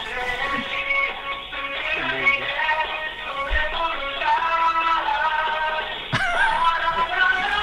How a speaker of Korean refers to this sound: 어, 컬러링만 지금 계속 나오고 있습니다.